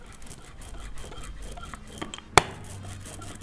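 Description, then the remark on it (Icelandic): An ink roller rolls back and forth over ink spread on a glass plate, making a soft, sticky, hissing texture sometimes called the sea sound, with faint rhythmic pulses and one sharp click partway through. “Nú er það að byrja að koma Þannig að Þetta er hljóðið Sjávar hljóðið Svo er stundum kallað”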